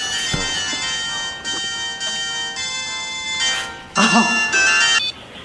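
A mobile phone rings with a bright, electronic melodic ringtone, a run of sustained high notes that shift in pitch and swell louder toward the end before cutting off.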